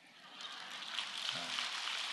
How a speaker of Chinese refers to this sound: 鼓掌的掌声好像不够响嘛，好。